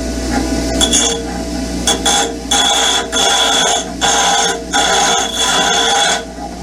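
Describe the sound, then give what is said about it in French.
A bench grinder runs with a steady motorized whine, broken by five or six harsh bursts of metallic grinding, each lasting about a second. It is loud, and no one speaks. “Et c'est Véronique, Véronique qui a trouvé Véronique vit sur le Facebook Live le Touré à meuler”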